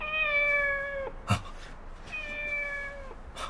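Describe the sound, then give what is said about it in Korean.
A cat in a factory meows twice, each cry long and steady and about a second in length, separated by a brief pause, with a short sharp knock after each meow. No one speaks. “다 죽인 줄 알았는데 아직도 남아 있었네. 고양이 말이야.”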